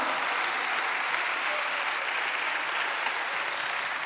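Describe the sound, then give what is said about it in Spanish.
An audience applauds the Lord steadily for about four seconds, a dense, even wash of many hands clapping at a constant loud level with no voices standing out. “Eso, denle un aplauso al Señor por eso, hermano.”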